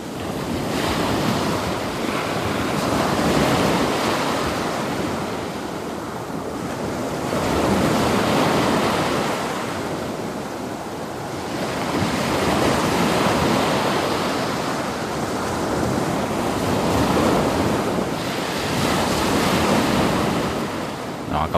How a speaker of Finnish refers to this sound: meren rannalla maininki iskee rantaa aika massiivisesti